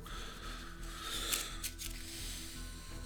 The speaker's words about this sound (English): Shuffle the encounter deck discard pile into the encounter deck. Okay. Hold on. Let's do that. Shuffle, shuffle, shuffle.